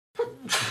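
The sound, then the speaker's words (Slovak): A single sneeze: a brief voiced intake followed by a sharp, bright burst of breath, loud and isolated with no talking over it. “Tak na zdravie.”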